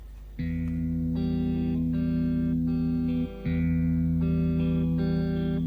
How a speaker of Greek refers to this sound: Μέσα από το ρεφρέν του τραγουδιού που ακολουθεί, μέσα από την καρδιά μου, μέσα από τα βάθη τη καρδιά μου, με όλη τη δύναμη τη ψυχή μου, σα το φωνάζω χωρί μπίπ και όσο πιο δυνατά μπορώ.